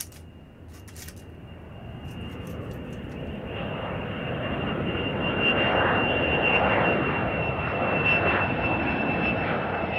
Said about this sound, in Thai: Do you hear that? Do you hear that sound? What's that noise? Oh, it's a plane. I think it's a plane. It's the airplane.